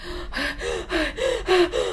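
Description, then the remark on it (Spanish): A voice imitates rapid, panicked gasping through the mouth, as a person hyperventilates during an anxiety attack: about six quick breathy inhalations in a row, fairly loud, with a strained voiced edge. “Y empiezan a respirar por la boca, que en realidad no están respirando, sino están hiperventilando.”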